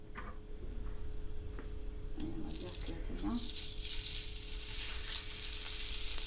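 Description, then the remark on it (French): Chicken sizzles steadily in a hot frying pan as it is turned every five seconds and pressed with a spatula, a continuous crackling hiss with occasional scraping touches, while a voice murmurs briefly in the middle. “Pour cuire son poulet, … le retourne toutes les 5 secondes dans sa poêle, en pressant dessus avec une spatule”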